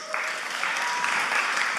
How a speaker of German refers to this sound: come on, Applaus.